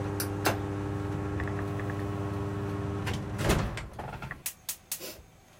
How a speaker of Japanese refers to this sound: よいしょってなんか普通の生活に戻ってくると換気扇めちゃくちゃうるさいね